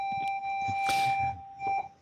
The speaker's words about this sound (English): sorry, I'm at school. You can hear the the bell.